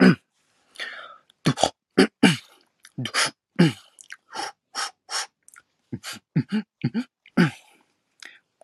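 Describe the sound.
A single voice performs beatboxing in a live performance, firing off a steady string of sharp vocal percussion hits: punchy kick-like bursts and crisp snare and hi-hat clicks in a lively rhythm, with no talking.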